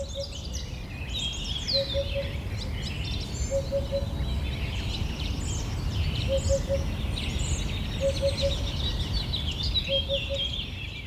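Dense forest ambience alive with many overlapping bird calls and chirps at high pitch, plus a repeating short mid-pitched call every couple of seconds over a steady low rumble. No one speaks.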